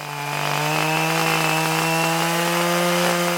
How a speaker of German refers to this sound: zieht mit einer Motorseilwinde eine rund vier Tonnen schwere Küstentanne vom Waldweg. Sie war beim letzten Sturm umgeweht worden.